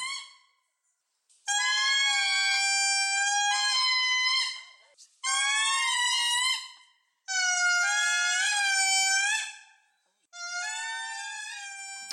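Indri (Indri indri, locally called Baba Kutu in Madagascar), the largest lemur, singing: loud, eerie wailing howls in four long bursts, each sliding and wavering in pitch like a siren, with short silent gaps between and no talking.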